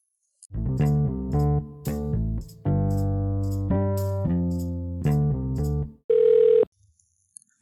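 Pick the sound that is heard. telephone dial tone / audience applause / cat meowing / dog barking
telephone dial tone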